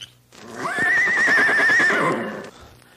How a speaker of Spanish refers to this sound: Ay, relinchó un caballo.